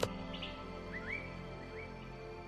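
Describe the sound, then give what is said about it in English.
A few faint, scattered bird chirps and short rising whistles sound over a steady, quiet outdoor ambience, with no one speaking, at naturally heated hot springs surrounded by palm trees, with the Arenal volcano as the backdrop. “Just picture it stepping into naturally heated spring waters that range from 90 to 110 degrees Fahrenheit, surrounded by palm trees and the sound of birds with a giant arenal as your backdrop.”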